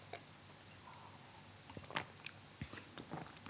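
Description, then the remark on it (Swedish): Quiet mouth sounds of someone sipping a hoppy, bright yellow beer smelling of pineapple: a few soft slurps, wet clicks and swallows scattered irregularly over a faint background hiss, with no talking. “Jag tänker att vi testar den direkt här.”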